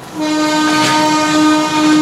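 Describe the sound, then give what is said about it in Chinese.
A train horn of the Fusen (福森号) forest train on the Alishan Forest Railway in Taiwan sounds one long, steady blast, a loud multi-tone chord held for nearly two seconds over a low rumble of the railway. No one speaks. “森林火车。福森号来喽！”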